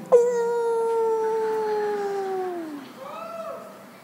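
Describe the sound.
A person imitates a wolf howl: one long, steady, drawn-out note that sags downward at the end, followed by a shorter wavering howl that rises and falls.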